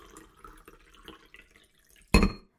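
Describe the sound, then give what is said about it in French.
A coffee machine gurgles softly with a steady, uneven bubbling, then lets out one sudden louder sputtering burst before fading out. “Comme j'ai souvent du mal à émerger, j'aime avoir le temps d'attendre devant ma machine à café, l'entendre glouglouter, puis mon moment préféré, le noyer dans un nuage de lait.”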